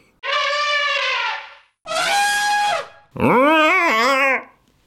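Three loud, brassy elephant trumpet blasts in quick succession, played as an elephant jingle, each lasting about a second, the last one wavering and bending in pitch. No one speaks.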